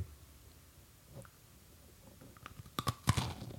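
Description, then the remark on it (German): Crunching as something crisp is bitten and chewed during a sound test, a cluster of sharp cracking bursts growing louder toward the end after a quiet start. “wir machen einen Klangtest. Ja, sie müssen einen Knuspern.”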